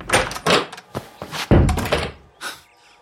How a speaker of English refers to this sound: Uh, but then he sort of finds the house and he opens the door.